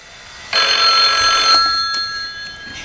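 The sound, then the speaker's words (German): A telephone bell in a headquarters office rings once in a loud, bright burst lasting about a second, then its metallic tone lingers and fades away. No one speaks. “Schon bald klingelte in der Zentrale das Telefon.”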